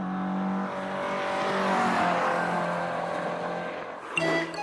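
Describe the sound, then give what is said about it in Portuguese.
A car roars past at high speed, its engine whine swelling loud as it nears and fading as it speeds away, with a brief sharper burst of sound at the end. “E a resposta correta é um carro a passar muito depressa, como era óbvio.”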